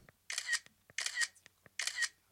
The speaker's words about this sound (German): Na, erkennt ihr es? Das ist das Smartphone-Kamera-Geräusch. Das ist bei mir ein iPhone. Falls es bei euch ein anderes Gerät ist, mag es ein bisschen anders klingen